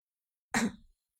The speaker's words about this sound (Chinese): 看到这一幕，苏哲咳嗽一声道